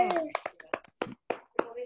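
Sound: hand clapping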